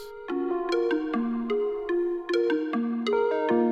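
A melancholy hip-hop track opens on a steady, repeating guitar figure of plucked notes with sharp attacks and ringing sustain, playing clearly and fairly loud with no voices.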